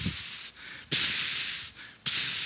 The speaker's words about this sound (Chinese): 你就慢慢的往厨房靠近，在你靠近的时候，你就听到锅子在煎东西的声音。